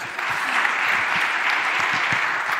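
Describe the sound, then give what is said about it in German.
A crowd claps steadily throughout, a dense wash of many hands applauding with no pauses, loud and sustained for the whole stretch. “Sorry, applaudiert erstmal, fertig.”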